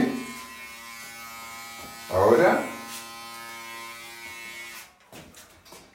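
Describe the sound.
An electric hair clipper buzzes steadily with a constant droning hum, swelling briefly louder midway, then cuts off near the end. A voice speaks briefly over it.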